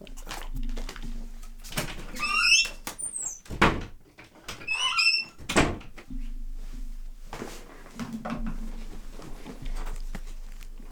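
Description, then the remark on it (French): Chairs creak and squeak as people get up from their chairs, with a few sharp rising squeals, dull knocks and shuffling movement, otherwise quiet. “Eh bien écoute, on se lève de nos chaises.”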